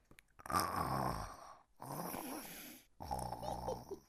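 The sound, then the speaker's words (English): A child's voice imitates the snoring of a granny with three drawn-out, rasping snores separated by short pauses, each one loud and low with a buzzy, throaty rattle. “would you do a snoring granny sound for me?”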